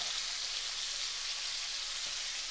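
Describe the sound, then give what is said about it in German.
Steady sizzling of a duck breast seasoned with salt and pepper, frying skin side down in hot fat in a pan, a continuous crackling hiss with no pauses and no voices over it. “Hautseite liegt ja im Fett, also wird Fleischseite gewürzt.”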